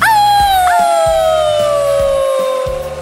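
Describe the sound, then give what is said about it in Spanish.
Hungry wolves howl loudly in dark, cold forests, one long wavering cry sliding slowly downward as a second howl rises in to overlap it, over a low, rhythmic rumble. “Pronto, ya no se vieron las luces, nos internamos por bosques oscuros y fríos, donde vagaban lobos hambrientos y conejos de cola blanca.”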